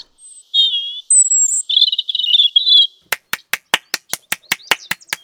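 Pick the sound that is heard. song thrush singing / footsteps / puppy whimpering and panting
song thrush singing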